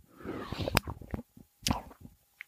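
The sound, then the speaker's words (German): A carbonated drink is opened: a rushing hiss of escaping gas with sharp cap clicks, followed by a second short fizzy burst and some wet, bubbly sounds. “Von wegen Wasser ohne Kohlensäure.”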